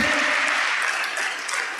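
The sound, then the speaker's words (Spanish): An audience applauds during a Spanish-language sermon, many hands clapping at once in a dense, continuous wash of sound that stays loud and even throughout, with no voices standing out. “si va a aplaudir, hágalo bien, por favor.”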